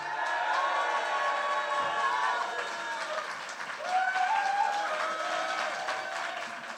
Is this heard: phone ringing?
no